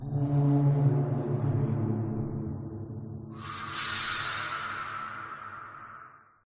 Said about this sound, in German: Ihr hört das Donnern der Wellen, Echohöhlen.